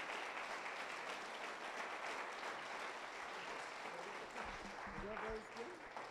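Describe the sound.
An audience applauds steadily, a dense wash of clapping that holds at an even level throughout, with a few voices rising faintly near the end.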